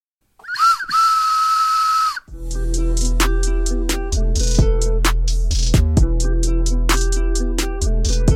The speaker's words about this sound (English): I know what this train whistle implies.